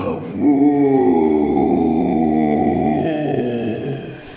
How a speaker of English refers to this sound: So stinky that you woke up the ancient Colossus. For a second, you're convinced it's looking straight at you. But then it shakes its great furry coat and gives an icy, stinky roar.